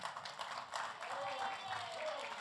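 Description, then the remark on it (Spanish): A church audience claps and applauds for the Heavenly Father during a sermon, a steady, dense patter of many hands, with voices mixed into the sustained clapping throughout. “Denle aplauso al Padre Celestial.”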